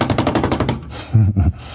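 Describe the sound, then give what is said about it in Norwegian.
A just-washed wet paintbrush is beaten hard and fast to shake off the excess, making a rapid burst of about eight loud slapping thumps, followed by a couple of duller low thuds. No one speaks. “Let's wash your brush. Hmm. I just like to, I like to wash this brush. It's a lot of fun. There we go. Shake off the excess.”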